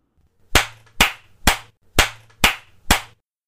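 Six sharp, loud spanking smacks land in a steady, even rhythm about half a second apart, with a faint low hum underneath and no voices.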